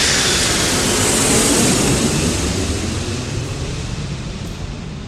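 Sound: airplane engine in flight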